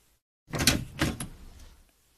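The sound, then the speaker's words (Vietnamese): A bathroom door swings open with a short scraping creak and a soft knock, the sound fading out within about a second and a half. “Cửa phòng tắm mở, Johanna bước ra, khoác chiếc áo choàng”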